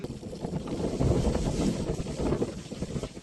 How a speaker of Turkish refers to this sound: Lodos şiddetini arttırdı. Akşam saatlerinde bir kafede çekilen görüntülerde giderek güçlenen fırtına vatandaşları korkuttu.